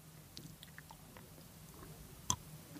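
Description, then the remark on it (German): Quiet chewing of crunchy lye salt pretzels eaten as a snack, with small crackling bites scattered throughout and one sharper, louder crunch near the end. No one speaks. “Also in jedem Fall knusprig durch die hm, das könnt ihr jetzt alle hören.”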